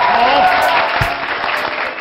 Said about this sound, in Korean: 우리 큰 박수로 좀 맞을까요?